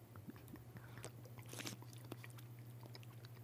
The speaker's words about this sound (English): All I can say is it smells wonderful. I'm going to uh, take a little sip. Sure. Here we go.